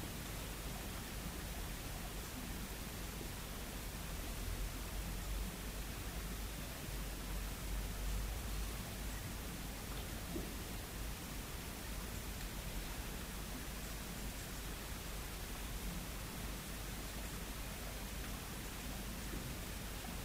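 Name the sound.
rain falling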